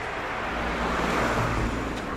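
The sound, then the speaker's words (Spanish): A car rumbles past on a street, its broad engine and tire roar swelling and fading over about two seconds, loud with no voices. “No sé cómo se oirá este coche que ha pasado, yo lo he oído como un trueno.”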